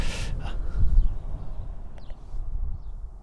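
A person gasps sharply for air right at the start, then takes a shorter second breath, over steady outdoor wind rumble, about an hour from Vegas. A couple of faint chirps follow later.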